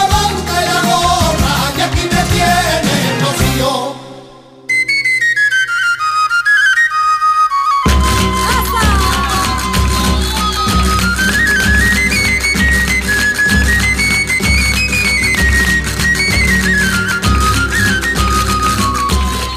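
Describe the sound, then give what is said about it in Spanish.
A sevillana, a flamenco-style song dedicated to the Virgen del Rocío, plays loud, with a bright lead melody over steady rhythmic accompaniment. It briefly thins out, then returns at full strength. No one speaks. “Ya hemos escuchado otra, otra sevillanita dedicada a la Virgen del Rocío.”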